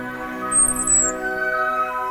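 A shrill, high screech of an eagle in the distance, which has just caught a tortoise and takes flight over the Sicilian countryside, rings out once, briefly and fairly clearly, over a steady sustained musical drone that continues throughout.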